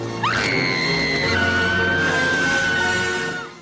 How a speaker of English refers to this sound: The film executives jumped at the chance to recast her and they pulled in Kim Basinger, who this is kind of weird saying, but Kim Basinger has probably one of the greatest screams in film history.